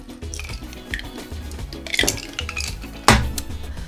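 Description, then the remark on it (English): Glasses clink together in a toast, a couple of bright knocks standing out over soft clattering and handling noise, with no talking. “Let's raise our glasses uh, in a remembrance of John Doe. Yes. So this is my glass. I'm raising it. Cheers”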